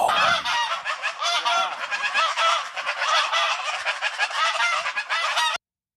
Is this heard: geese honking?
yes